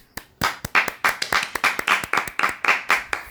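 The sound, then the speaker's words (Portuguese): A round of applause for the Sorting Hat from Harry Potter, in steady, rhythmic claps, about four per second, loud and crisp, with no voices over it. “Tudo que a gente falou hoje aqui, eu vou, por favor, puxar uma salva de palmas.”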